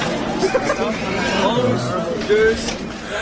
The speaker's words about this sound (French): alors, on entend les gens crier, on entend le gardien de sécurité qui compte les 20 personnes qui vont entrer.